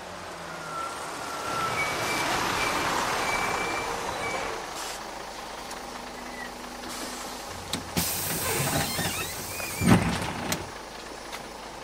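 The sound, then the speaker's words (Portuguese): Bus station ambience at Estação Pampulha in Belo Horizonte: a steady rumble of idling engines and traffic with repeated high warning beeps, a few sharp hissing bursts like air brakes, and sliding-door clatter, with no voices. “Já que a nossa conversa é sobre religião e política aqui na capital, nós fomos até a Estação Pampulha fazer as pessoas imaginarem um pouco.”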